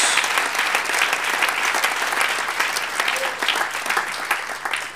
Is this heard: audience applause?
yes